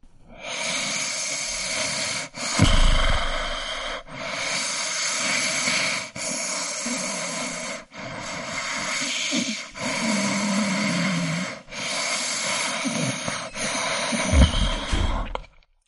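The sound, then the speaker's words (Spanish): Heavy nasal breathing with snorts, loud, in a steady cycle of roughly eight long, hissing breaths, each separated by a brief pause, with no talking. “Con la nariz, ¿no? O sea, por ejemplo, la respiración, no sé, de un gordo.”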